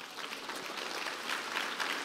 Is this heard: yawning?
no